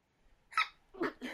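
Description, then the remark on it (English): A sharp sneeze bursts out, followed by a couple of short, breathy noises as the person recovers, with no talking. “Excuse me. Um, oh, bless you.”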